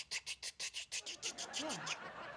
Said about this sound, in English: That's my new ice maker built right into the fridge.